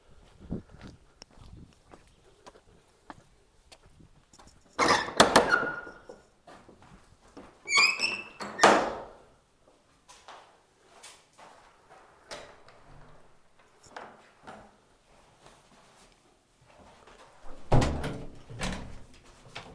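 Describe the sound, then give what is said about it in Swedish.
A heavy wooden church door, the one facing the road, is handled: a loud clunk of the latch, a squealing hinge creak as it swings open, and later another solid thud as it shuts, with scattered footsteps in between. “Jajamän, här står dörren öppen.”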